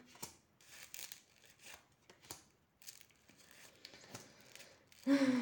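household object, shuffling and drawing cards

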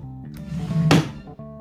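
household object, door closing

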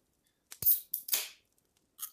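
food or drink, beer bottle being opened

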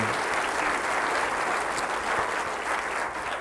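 crowd, audience applauding

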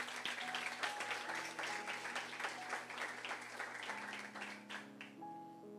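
crowd, audience applause

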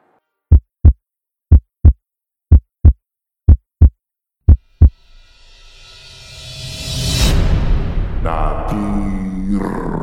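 sound effect, heartbeat sound effect

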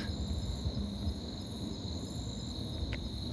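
animal, frogs calling

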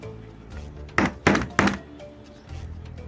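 household object, knocking on a door

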